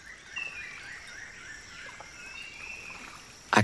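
Canoe paddles move quietly through the water of the Tapajós River at Alter do Chão during a canoe ride, with a soft steady wash and one sharper splash of a paddle stroke near the end. Faint bird calls drift in.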